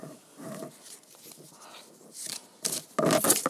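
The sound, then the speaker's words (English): Papery rustling of a tarot card deck being shuffled, with soft shuffling movements building to two louder riffling bursts at the end. No one speaks. “I've got the tarot deck with me. Uh, I'm gonna do a little shuffling.”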